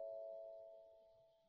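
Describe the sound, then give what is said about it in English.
A doorbell at a house rings with one sustained electronic chime tone that slowly fades out. It sounds quiet, with no talking over it. “I think that was my doorbell.”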